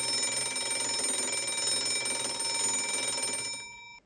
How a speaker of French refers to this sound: Un réveil.